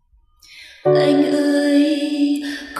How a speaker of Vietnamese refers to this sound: … sẽ gửi tặng các bạn thêm một ca khúc nữa